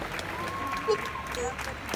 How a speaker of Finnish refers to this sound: Mutta onhan tämä nyt hienoa. Siis ihan uskomaton. Siis ihmiset taputtaa parvekkeillaan.